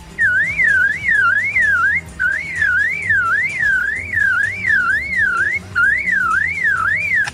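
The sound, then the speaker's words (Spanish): A lyrebird mimics a car alarm, looping a loud, rapid up-and-down warbling whistle over and over with a couple of brief breaks, above a low background rumble. No one speaks. “Esto ayuda a atraer a las hembras, por lo que puede imitar el canto de varias aves que la rodean, pero también puede imitar más de una veintena de sonidos como por ejemplo el de una cámara fotográfica, la alarma de un coche”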